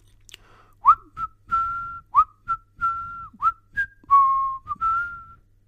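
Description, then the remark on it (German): A bright, cheerful whistled tune of short rising and falling notes, some held longer, clear with no talking, whistled by someone saying goodbye as he leaves. “sagt er und verabschiedet sich lustig pfeifend.”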